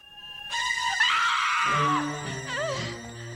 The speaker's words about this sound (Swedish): Vi kan väl lyssna på hur, hur det låter när Laura skriker.